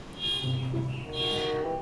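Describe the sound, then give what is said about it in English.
Car horns blare in two overlapping honks, steady harmonic tones that swell and hold for a second or so each, moderately loud, with no talking. “Yeah, let's wait till the honking cars go.”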